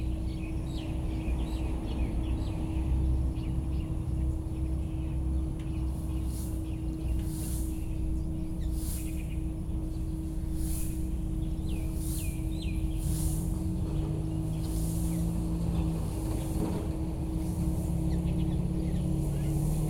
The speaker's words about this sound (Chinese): 最后一个呢，是在秋天的早上，可以注意一下，嗯，车子的声音跟第一段晚上的车子声音有点不太一样。